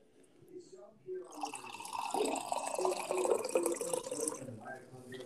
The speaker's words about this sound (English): Wow, so, you're really um, you're really pouring there, aren't you?